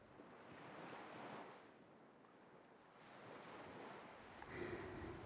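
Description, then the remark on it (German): Ocean waves rush steadily onto the shore along the dunes in broad, swelling washes of surf, with a faint high chirping of crickets from the forest on the other side and a brief chirp near the end. No one speaks. “Du gehst weiter und genießt das Zirpen der Grillen aus dem Wald auf der einen und das Rauschen der Wellen auf der anderen Seite.”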